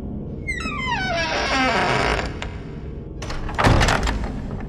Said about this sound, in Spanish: Escuché que la puerta del baño se abría, muy lentamente.